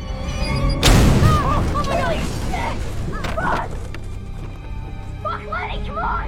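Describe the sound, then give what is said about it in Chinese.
A single explosion, as a mother carrying a baby walks to a mailbox, bursts out early with a sudden, loud, deep boom, then rumbles and fades into a low wash of noise while a voice keeps talking over it. “眼见这位母亲抱着小婴儿走向信箱，随着一声爆炸，四人仓皇的逃离。”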